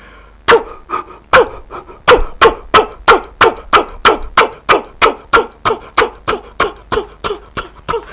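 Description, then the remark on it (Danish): A steady putt-putt of an old fishing cutter's engine, imitated by hand: about two dozen breathy, evenly spaced puffs, fairly loud, with no talking. “Og så mixede vi det der bølgeskulp og, og, og mågeskrig på, og så mixede vi til sidst min fiskerbåd, som jeg laver sådan her i hænderne.”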